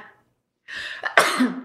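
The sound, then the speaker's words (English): A single loud sneeze: a short breathy wind-up followed by a sharp, explosive burst that trails off into a brief voiced tail, with no talking around it. “If we actually leave this in the podcast, that's a real sneeze.”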